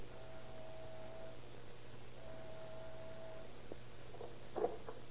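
An apartment door buzzer is pressed and drones twice, each press lasting over a second, over a steady low hum and hiss, followed by a couple of faint knocks or shuffles.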